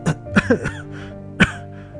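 human body sound, cough

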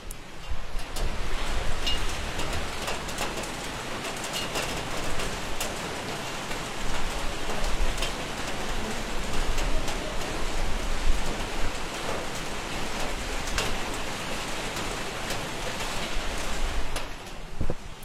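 nature, rain falling

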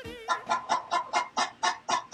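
animal, hen clucking

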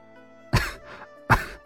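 human body sound, heavy coughing

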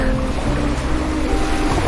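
nature, ocean waves

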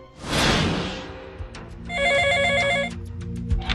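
signal or alarm, telephone ringing

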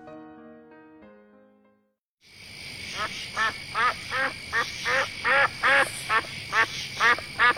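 bird, duck quacking

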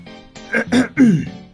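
human body sound, throat clearing

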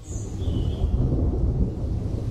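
nature, thunder

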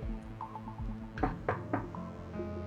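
household object, knocking on a door

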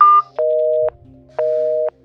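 signal or alarm, phone busy tone

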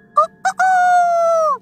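bird, rooster crowing

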